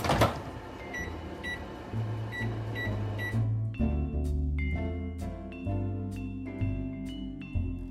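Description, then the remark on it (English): A kitchen timer is set for 25 to 30 minutes of oven baking, with a series of short electronic beeps, first spaced evenly in a quick run, then a cluster of sharper button chirps over a low humming appliance, fairly loud. “So I'm gonna set my timer”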